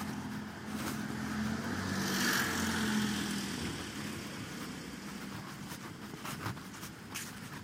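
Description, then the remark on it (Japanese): A car approaches and passes, its engine and tire noise swelling to a peak, then fading away into a steady outdoor rumble. No one speaks. “車が来ました”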